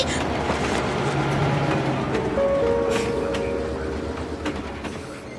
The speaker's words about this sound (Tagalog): Tila dumoble ang bilis ng LRT sa pagbiyahe nito sa susunod na istasyon.